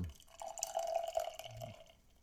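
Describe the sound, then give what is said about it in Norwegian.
A Modern Day IPA beer is opened and poured into a glass, a steady liquid gurgle lasting a couple of seconds with a slight rising ring as it fills, then tapering off. No one speaks. “Uh, eh, mens vi åpner her, kan vi ta litt sånn historie om det.”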